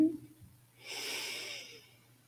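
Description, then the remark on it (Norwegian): A single slow, deep inhale through the nose during a guided breathing exercise with shoulder movements, airy, swelling over about a second before fading, with a faint low hum underneath and no talking. “Pust inn.”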